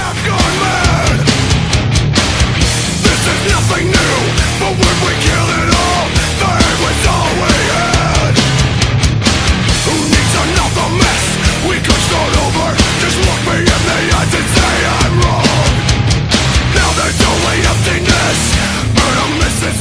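A nu metal song plays loudly and continuously on the rock program Papo é Rock, a dense wall of distorted guitars and pounding drums with harsh, shouted vocals, holding the same intensity for the whole twenty seconds.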